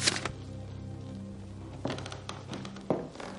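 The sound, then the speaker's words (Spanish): Sheets of paper being handled as a woman makes to hand them to a man: a few short, crisp rustles and soft taps come and go over a low steady hum, fairly quiet, with no voices. “Ella hace amago de entregarle las hojas.”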